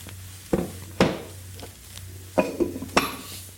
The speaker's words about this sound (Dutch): En daar klinkt dan nog het geluid van zijn bak met heel veel verschillende pijpen, want hij verzamelde die.